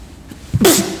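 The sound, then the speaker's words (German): A single sharp sneeze bursts out, a quick inhaled catch followed by a loud, breathy explosive release that fades over a fraction of a second. “Ich musste niesen. Es tut mir wahnsinnig leid, aber äh, ich musste niesen.”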